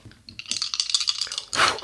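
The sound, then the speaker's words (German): Dice clatter and rattle across a hard surface in a quick burst of sharp clicks, ending with a louder, scraping tumble. Fairly loud, with no talking. “Willst du noch einmal würfeln? Einmal würfeln wir noch.”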